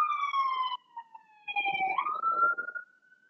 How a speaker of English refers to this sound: always uh, battling the sirens on this this busy uh, street in Billings.